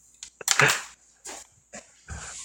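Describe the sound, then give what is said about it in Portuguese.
A dog barks excitedly several times in quick, uneven bursts, the first bark loudest, followed by shorter yips and a final low bark. “O cachorro fica louco.”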